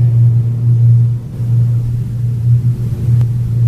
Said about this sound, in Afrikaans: Is dit die wind? Dis die wind. Dis die wind wat teen die vuurtoring waai. En soos hy nou eh, suidooste is, hy sterk, hy sterker aan die ooste kant.